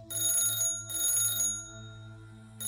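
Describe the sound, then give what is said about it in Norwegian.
An old-fashioned telephone bell rings at the home of Håkon Holmboe, a call from a teacher in a remote village in the district, in bursts, two long trills separated by a short pause and a third beginning at the end, fairly loud over a low steady hum. “Telefonen ringer hjemme hos Håkon Holmboe.”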